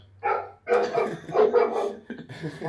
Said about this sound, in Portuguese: o cachorro tá reclamando.